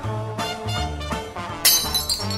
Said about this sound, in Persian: دوباره یکی از بشخاب ها رو خورد کرد